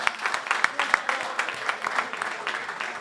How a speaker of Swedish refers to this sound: Vi har några vinnare, eller hur? Stor applåd!